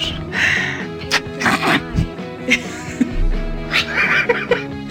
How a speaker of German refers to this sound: Ich höre schon Katzen.